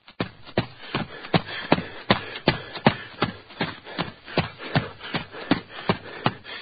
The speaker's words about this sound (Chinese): 就在这时，我们头顶上突然传来一阵凌乱的脚步声。两个相邻的脚步声之间间隔时间很长，至少听起来比一般情况下要长。这里可验证了我心里的结论：是一个身材高大、胯部很大的人在奔跑。